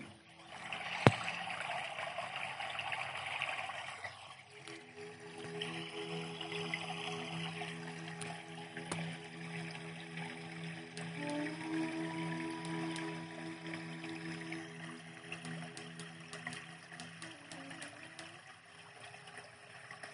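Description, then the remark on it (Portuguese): Water flows steadily for the whole stretch, a continuous rushing, trickling wash at moderate volume, with a low steady hum running underneath and no voices. “Conecte-se com o som da água, com o fluir das águas.”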